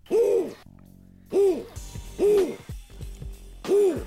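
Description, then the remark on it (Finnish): Four loud owl hoots arrive in a steady rhythm about a second apart, each a rounded, wavering call, with a low hum filling the gaps between them. “Sitten mä näen täällä jotain pöllöeläimiä. Hörristys.”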